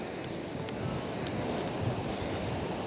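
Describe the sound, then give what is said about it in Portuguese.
Steady rushing wind and surf on a beach in the morning, a dense, continuous roar that stays fairly even throughout with slight swells in loudness and no clear voices. “Que nessa manhã, assim como o mar, as aves que estão aqui na praia,”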